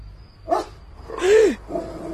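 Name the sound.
dog barking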